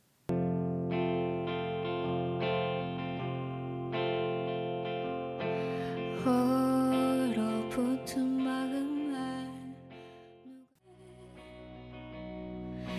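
A music track plays at steady volume: sustained, effects-laden chords with a distorted, chorus-like sheen, swelling into a brighter, busier passage midway before briefly dropping out and resuming more softly.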